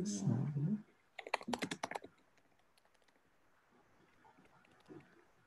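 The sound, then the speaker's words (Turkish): A quick flurry of crisp keyboard clicks, several keys pressed in rapid succession for about a second while fixing a call's audio problem, following a short low murmur, then near-quiet. “Dur çete basıyorum.”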